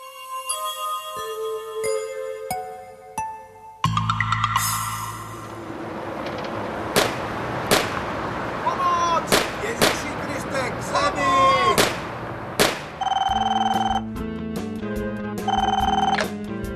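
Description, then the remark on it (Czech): Several sharp, loud gunshot-like bangs of a shooting on Mlínská Street in Brno, Czech Republic, crack out a few seconds apart over a dense, dramatic musical backdrop, following an opening of ringing electronic tones. “Já, já chci ohlásit střelbu.”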